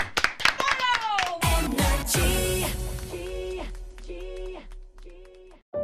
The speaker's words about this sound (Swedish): du får en applåd av oss.